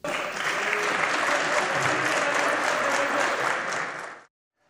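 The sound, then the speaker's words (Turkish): Sustained applause from the AK Parti and MHP benches in the Turkish parliament as a Bayram speech ends, a dense steady wash of many hands clapping that holds for about four seconds, then cuts off abruptly. “Bayram konuşmasını bitirdiğinde de AK Parti ve MHP sıralarından alkış sesleri yükseldi yükseldi.”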